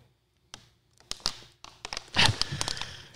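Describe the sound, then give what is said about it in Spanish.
A thin plastic drinking bottle crinkles and crackles in a series of sharp, irregular bursts as someone takes a drink from it, growing denser toward the end with a few brief taps in between. “No me gustan estos botes. Cada vez que le doy un trago suena.”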